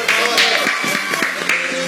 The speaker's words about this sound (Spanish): Así que hoy, eh, y creo que se merecen un fuerte aplauso porque son de los seres más queridos, por lo menos por sus nietos. Hoy es el día de el abuelo, los abuelos, les abueles, como ustedes quieran. Así que un aplauso, chicos,